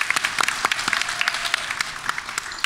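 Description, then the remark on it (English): After a live performance, a crowd applauds itself, a steady, dense patter of many hands clapping with sharp individual claps standing out, sustained and fairly loud throughout without any voices over it. “Uh, big round thank of you. applause for you guys.”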